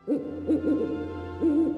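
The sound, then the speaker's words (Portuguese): An owl hoots four times, three short wavering calls in quick succession and then a longer, steadier hoot after a pause, low-pitched and fairly loud over a faint constant hum. “Pedro tensionava experimentar diálogos com o mocho, símbolo da inteligência e sabedoria.”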